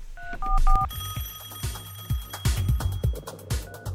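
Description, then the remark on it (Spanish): A telephone rings with bright electronic beeping tones as phone lines open for listener calls, set against a rhythmic musical beat with steady thumping bass. No one speaks, and the ringing sits clearly up front in the mix. “Pero bueno, eh, ya tenemos tres llamadas de nuestro público. Llámenos este, en este momento los teléfonos al aire.”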